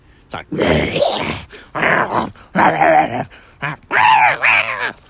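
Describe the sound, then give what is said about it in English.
A person's voice imitates a snarling dog and a yowling cat in a string of loud, strained bursts separated by short gaps, with no spoken words. “You know, cat screaming noises.”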